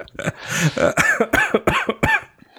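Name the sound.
coughing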